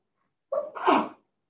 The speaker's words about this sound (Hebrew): בריאות.